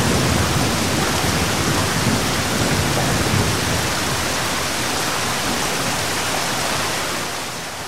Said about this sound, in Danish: Regn, regn, regn.